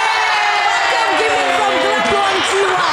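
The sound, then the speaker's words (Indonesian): A loud, steady roar of a large stadium crowd, with many overlapping voices cheering and shouting throughout, filling the space without a break. “Seru kayak di typingnya kayak di GBK ya.”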